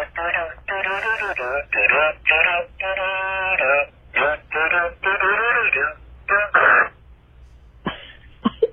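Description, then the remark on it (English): A squeezed toy pig plays a tinny electronic song through a small speaker, a string of short choppy melodic bursts with brief gaps, fairly loud, with no talking over it. “you squeeze it, it plays a song, and then you pass it around, and then whoever's left with it when it's farting, you know, is the loser.”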